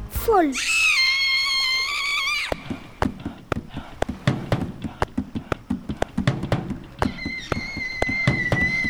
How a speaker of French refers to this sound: les nymphes qui sont avec elle commencent à se frapper les seins, à pousser des cris perçants.